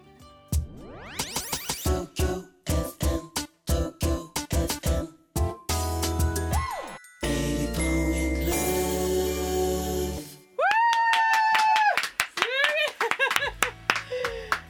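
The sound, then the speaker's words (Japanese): A loud live instrumental performance, played live rather than from a recording, moving from sharp staccato chord stabs into long sustained swelling chords and quick bright melodic runs, with no voices. “すみません皆様今のは生演奏ですよ 音源ではありませんすごいですね”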